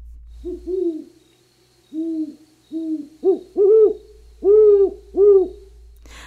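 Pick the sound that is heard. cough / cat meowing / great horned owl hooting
great horned owl hooting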